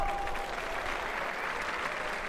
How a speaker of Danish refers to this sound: Og inden vi går ind på den absolute nedtælling, så kære løber, skal vi ikke lige klappe en anden ønske en anden god tur?